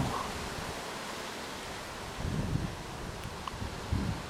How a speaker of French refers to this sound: On entend juste le vent qui souffle et qui souffle. Et encore et encore.